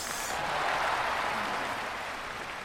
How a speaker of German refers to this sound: Bitte Applaus.